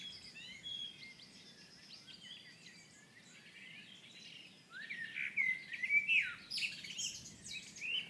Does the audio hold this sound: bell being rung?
no